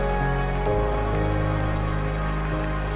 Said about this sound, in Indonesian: Atau mari menari di bawah alunan hujan yang memiliki arti, sebab ribuan rintikannya akan membuat kita mengerti bahwa tiap-tiap yang jatuh tak sendiri.